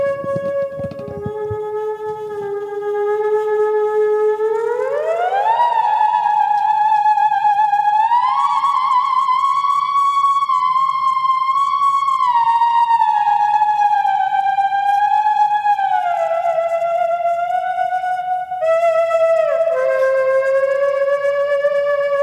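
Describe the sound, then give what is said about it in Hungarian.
A theremin plays a single sustained, wavering tone that slowly glides up and down in pitch, like a whale call. It stays loud and steady throughout, with no voices. “Teremin, Teremin. Itt van bálna hangok.”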